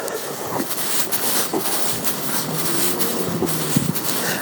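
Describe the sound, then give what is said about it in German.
A train rumbles past in a steady, broad roar with occasional metallic clanks and squeals, filling the town of Hanau outdoors at about 5:20 in the morning; no one speaks. “Ah ja, da kommt jetzt mal eine Soundkulisse von Hanau morgens um, naja, so, was wird du jetzt sagen, 20 nach 5 also, diese Sonnenblitze bekommt ihr ja auch nicht jeden Tag geliefert.”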